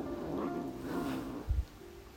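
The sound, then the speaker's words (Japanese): A cat lets out a long, drawn-out yowling meow, fairly steady, followed by a couple of soft low thumps as it trails off. “ちょっと猫が騒がしいんですけど”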